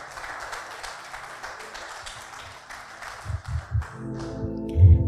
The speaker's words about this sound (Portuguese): Eu agradeço o Senhor por esta oportunidade né? E as palmas engrandecem o nome do Senhor.